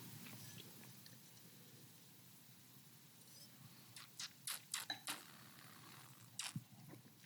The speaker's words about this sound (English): And while I'm talking about it, what it tastes like, let me take a sip or two.